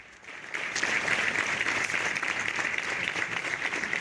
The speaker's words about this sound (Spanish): donde rompían con este aplauso, ese minuto de silencio, al que además de representantes institucionales han unido representantes también de las fuerzas y cuerpos de seguridad del Estado y algunos cuantos ciudadanos y ciudadanas.